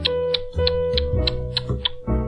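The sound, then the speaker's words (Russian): Sharp, evenly spaced clicks of high heels with metal taps, about seven in quick succession, ringing over a steady low tonal drone in the background. “Такой звук издается благодаря каблучкам, на которых металлические набойки.”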